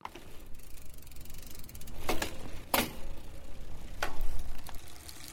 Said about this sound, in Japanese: これは中井ディレクターが出勤する時の自転車の音です